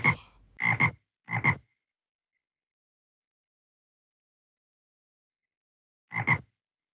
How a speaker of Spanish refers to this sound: Rana. La rana le gusta nadar en el estanque.